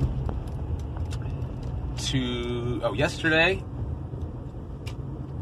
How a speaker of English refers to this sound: Give me one second as I avoid this trash truck.